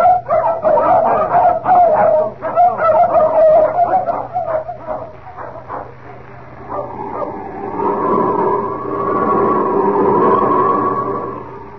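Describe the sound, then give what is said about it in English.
Several dogs being let out bark excitedly in quick, overlapping, loud bursts, then the barking gives way to a drawn-out, wavering howl and whine for the last few seconds. “This is something like about 50 times faster than dogs.”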